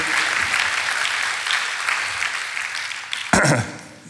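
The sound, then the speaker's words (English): An audience claps steadily, a dense wash of many hands sustained for about three seconds, then a sharper burst and a quick fade as the applause dies down. “Do you think the Lord's worth a clap on that one?”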